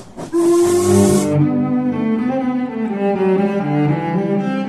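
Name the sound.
steam train whistle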